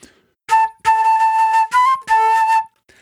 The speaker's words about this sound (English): So I can play something like that, and that's just normal flute playing. And when I play it, it just sort of sounds like I'm playing flute.